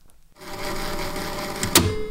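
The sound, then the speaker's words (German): A short burst of mechanical clattering from a cassette tape deck, a steady whirring rattle ending in a sharp plastic click as the tape is flipped and reinserted, fairly loud. “Wer muss denn heute die Kassette umdrehen?”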